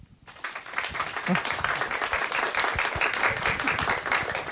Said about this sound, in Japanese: ありがとうございます。なんか控えめな拍手じゃないですか。